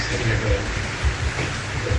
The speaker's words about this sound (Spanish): Cayendo agua de mamacita. Está lloviendo.